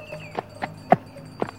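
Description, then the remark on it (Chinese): The hooves of a small donkey ridden by Afanti clip-clop in four hollow, knocking steps at an uneven, unhurried pace, the third hit the loudest, over a faint steady background hum with no voices. “我是阿凡提，头戴民族帽，骑着小毛驴。”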